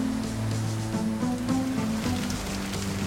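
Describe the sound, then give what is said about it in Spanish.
The first drops of light rain patter steadily on a cold, grey night, scattered drops ticking over a soft wash of noise, with a low sustained hum droning underneath. No one speaks. “Cuando sintió las primeras gotas, iba a comenzar a subir hacia la troncal Caracas”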